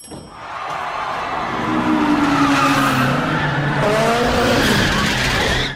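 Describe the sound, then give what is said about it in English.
Car engines roar steadily as tires squeal in long, wavering tones through a drift up a circular garage in a movie street race in Tokyo between Sean Boswell and DK, the Drift King, the whine rising and falling over a dense, loud engine rumble with no talking. “my very favorite scenes in this movie and in any car movie is this beautiful operatic drift up the the circular garage in Sean Boswell's first race against DK.”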